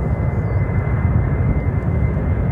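A steady, loud engine roar from a large six-engine military aircraft taxiing, not flying, during a taxi test in a desert at 110 knots; a dense low rumble with a constant hiss cut off sharply above, no voices.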